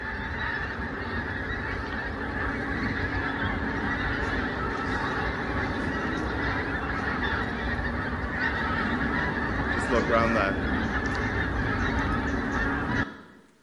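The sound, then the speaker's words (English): A large flock of about a thousand geese honks loudly and continuously, dense overlapping calls filling the air for over ten seconds before cutting off abruptly. “Wave after wave of loudly honking geese.”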